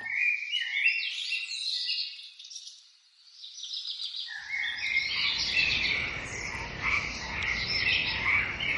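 A dense chorus of many frogs croaking and trilling at once, steady and overlapping throughout, with a soft rushing background noise joining partway through. No voices.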